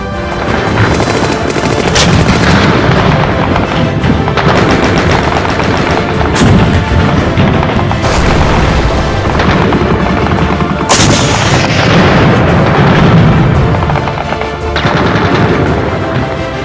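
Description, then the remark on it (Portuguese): Dense battle sounds of artillery fire and gunfire between German and Soviet forces, with the destruction of armored units, sharp bursts and booms layered over a constant loud roar, intense throughout, no voices. “sons que se misturavam com a dos disparos de artilharia e da destruição das unidades blindadas.”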